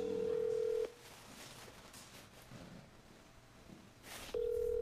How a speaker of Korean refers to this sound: 자, 바로 전화 연결해 볼까요?